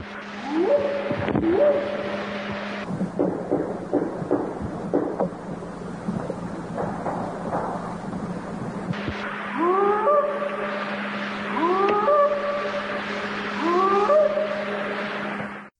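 Rising, hooting whoop calls and a rapid series of sharp wooden-sounding knocks over a steady low hum; knocking fills the middle, then three evenly spaced whoops ring out near the end.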